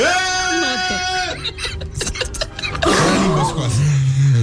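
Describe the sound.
A person makes a long, sustained bleating note like a goat, held steady for about a second, followed by a burst of livelier vocalizing and another drawn-out, wavering voiced sound.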